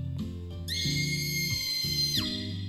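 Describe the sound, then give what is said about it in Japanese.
A shrill, sustained scream sound effect cuts in over eerie low background music, holding a high pitch for about a second and a half before sliding down and cutting off. “まあ、キャーっていう音楽も入れたんだけどねこういうこういう音ですよキャーっていうのねはいちょっと今流します”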